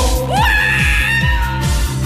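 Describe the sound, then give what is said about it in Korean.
A loud, high scream from a concert audience rises sharply and holds over live music, with a deep drum beat thumping steadily underneath for a couple of seconds. “소리 지르시고”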